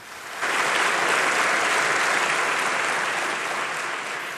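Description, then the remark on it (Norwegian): Sustained applause in Turkey's new parliamentary assembly as President Erdogan is presented, clapped only by representatives of his own party. It begins abruptly and holds steady as a dense, even wash of many clapping hands, tapering slightly toward the end with no voices standing out. “For selv om alle synger med til nasjonalsangen, blir den dype splittelsen åpenbar når president Erdogan presenteres for den nye forsamlingen Presidenten som er elsket, hatet, men først og fremst svekket, mottar applaus.”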